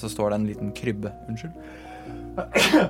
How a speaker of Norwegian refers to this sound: Prosit. Takk.